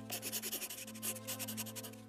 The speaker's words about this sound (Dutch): En het is daar dat François, zijn vriend Camille, een, een brief ziet schrijven in het holst van de nacht, onder het kaarslicht. En de man die zo'n mooie pen heeft, gaat ook een zeer ontroerende brief richten aan zijn vader.